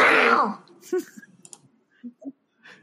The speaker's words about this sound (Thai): เฉลยนะ มันเป็นเสียงจิ้งจกตัวผู้สีน้ำตาลที่กำลังหวาดกลัวสุดขีด